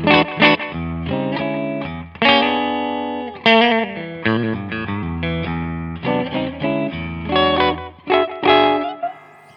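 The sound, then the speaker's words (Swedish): A Reverend electric guitar on its middle pickup setting, between the bridge and neck pickups, plays a lively run of strummed chords and picked notes, bright and slightly overdriven with a touch of effect, with no talking over it. “Vi hörde aldrig mellanläget heller.”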